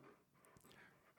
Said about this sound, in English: That's my dog. I don't know if that came through on the mic.